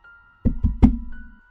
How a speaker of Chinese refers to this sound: 这时敲门声又响了起来